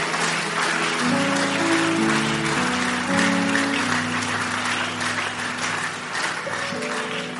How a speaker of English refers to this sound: Are you clapping or you are doing something like?